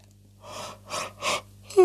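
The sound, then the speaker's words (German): A person imitates a yawn: three airy, breathy pulses of in-and-out breath, then a short voiced sigh with a falling pitch at the end. “Oh, sie gähnt.”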